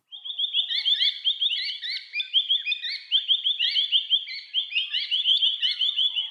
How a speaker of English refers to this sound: I wake up to the sound of noisy miners in my front yard in Melbourne almost every morning.